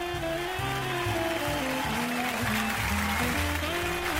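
A steady wash of applause welcoming a co-host onto the show, many hands clapping in a dense, unbroken crackle for about four seconds, with a stepping, tuneful melody playing underneath.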